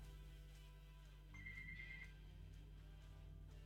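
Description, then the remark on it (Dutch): A telephone rings once during a test of the phone line, a short, thin electronic trill lasting under a second, fairly quiet and set against a steady low electrical hum with no voices. “Ik ga eventjes eh, voor de zekerheid even de telefoon testen.”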